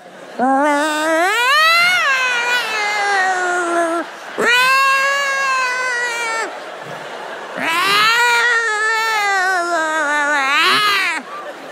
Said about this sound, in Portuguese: Gente, eu era adolescente, falei, mãe, tem demônio no telhado. Ela falou, não é demônio não, é os gatos cruzando.